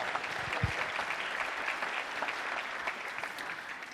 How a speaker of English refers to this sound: Well, it's our special opportunity right now to introduce you to our favorite Italian uh, evangelist. Would you put your hands together?